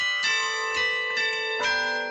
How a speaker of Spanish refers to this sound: Jean-Pierre Carma, carrillonero, toca a puño 34 campanas con tres octavas cromáticas. Del 17 al 23 de diciembre toca el nadalet o villancicos.